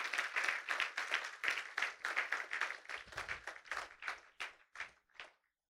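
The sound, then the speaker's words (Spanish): A church audience claps together in a steady, rapid rhythm, the sound dense at first and then thinning into fewer, separate claps before stopping. No one talks over it. “Él es bueno con sus hijos, iglesia vamos a dar un fuerte aplauso porque Él vive para siempre.”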